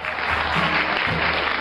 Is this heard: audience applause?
yes